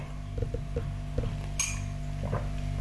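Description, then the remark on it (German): A coffee cup clinks once in a toast, a bright ringing tap standing out over a low steady hum, with a few soft dull knocks of crockery before and after. “So, dann zum Wohl und Prost Kaffee.”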